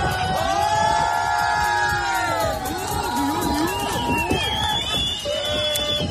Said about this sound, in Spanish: Y todo mientras, como escuchábamos, eran vitoreados por un grupo de personas que estaban asistiendo al espectáculo en el puerto de Barbate.